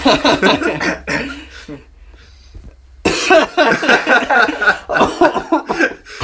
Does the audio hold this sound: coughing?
yes